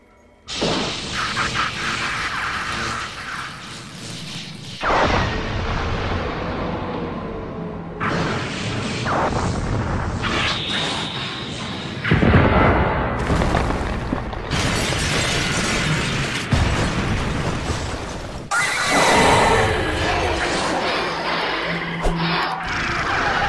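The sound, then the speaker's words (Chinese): A barrage of spiral missile explosions in Ultraman Orb, the missiles striking the monster Maga-Orochi: around six loud, booming blasts arrive every few seconds, each trailing into rumbling, crackling debris, with no voices over them. “螺旋导弹发射了，朝着摩哥大蛇的位置完美命中。可是， 爆炸产生的热能正在被吸收进地底。”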